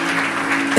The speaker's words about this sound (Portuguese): Vamos aplaudir nosso Deus em nome de Jesus.